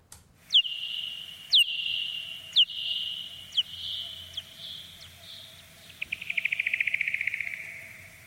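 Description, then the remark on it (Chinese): Bat echolocation calls while foraging: a series of evenly spaced, high, downward-sweeping chirps as it searches its surroundings for obstacles and food, then a rapid accelerating buzz of clicks at the end as it closes in on prey. No voices. “那来听一听，嗯、这个是中孚觅食的声音”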